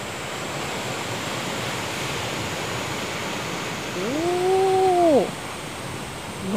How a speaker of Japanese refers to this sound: あもうちょっと波の音が聞こえてきましたおおわ結構ゴツゴツとした岩に波が打ちつけて白波が立ってますね